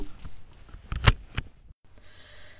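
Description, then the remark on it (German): A car seatbelt is pulled and buckled: a few sharp metallic clicks, the loudest in the middle, followed by a soft steady hum. “Anschnallen.”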